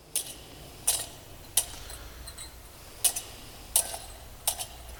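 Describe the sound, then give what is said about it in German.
Bright metallic clinks of a swinging church incense censer (thurible), as used in church services, coming in irregular pairs and singles about every second, fairly quiet over a soft background hiss. “Das ist ein Weihrauchfass, wie es im Gottesdienst verwendet wird.”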